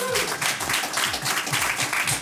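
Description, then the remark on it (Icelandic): A crowd applauds steadily throughout for two competing schools, Fjölbrautaskóli Suðurnesja and Fjölbrautaskólinn Ármúla, a dense wash of many hands clapping at once, while a voice speaks faintly underneath the noise. “Við erum ekki að klappa fyrir þeim, þeir sem eru hér.”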